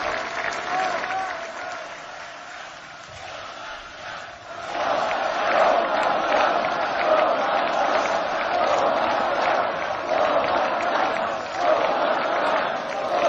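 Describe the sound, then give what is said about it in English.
A huge crowd roars continuously, chanting "Donald Trump", the dense wall of voices swelling louder about a third of the way through and staying strong, with a rough rhythmic chant-like pulse in the massed shouting. “That's a massive crowd chanting Donald Trump.”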